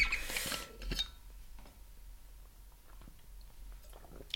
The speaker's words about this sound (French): Excusez-moi, je bois une gorgée.